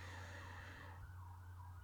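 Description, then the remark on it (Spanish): A London ambulance siren wails outdoors over steady traffic rumble, its tone dropping and fading as it moves away, with no one speaking. “Mirad una ambulancia londinense.”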